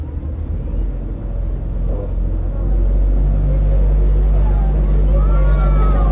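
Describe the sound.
A boat engine drones with a steady low rumble, growing louder and fuller after a few seconds, while voices speak over it and faint higher tones drift in near the end.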